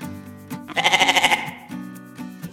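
A single loud, quavering goat bleat rises midway and trembles for nearly a second, set over a steady musical backing that continues before and after.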